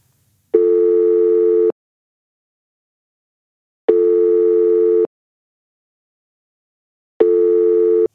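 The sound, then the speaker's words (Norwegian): A telephone ringback tone on an outgoing call: three steady, buzzing tones about a second long, evenly spaced with silent gaps between, clear, with no voices. “Vi ringer til Runar.”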